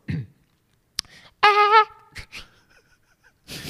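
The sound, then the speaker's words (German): A voice mimics a short, high, wavering scream-like cry heard late at night, lasting under half a second, preceded by a soft breath and a click, followed by a few quiet vocal noises and breathing. “Ich, ich, ich kann es nicht sagen, es ist wie so eine Art leichtes Schreien. Ich habe mal gedacht, vielleicht ist es ein Fuchs oder so.”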